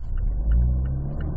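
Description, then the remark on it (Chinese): A car engine restarting quickly via its smart automatic start-stop system hums with a steady, low rumble, its note swelling briefly in the middle before settling back to a smooth idle at just over a thousand rpm. No one speaks. “还有一点就是这个智能启停的动作是很快速的，比如说停下车的时候，它悄悄的停下来，你看，停下来，一二三。”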